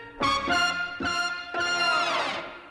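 A jazz recording plays four strong, sustained notes with rich harmonics, each hitting in turn and ringing out, loud and close, with no voices.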